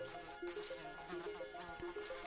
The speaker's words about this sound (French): En 1947, les premiers êtres vivants à quitter l'atmosphère en atteignant 100 km d'altitude sont des drosophiles, des mouches.